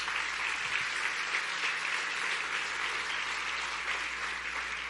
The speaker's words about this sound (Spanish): Amén o no amén. Dale un aplauso a Jesús si usted está de acuerdo. Gloria a Dios.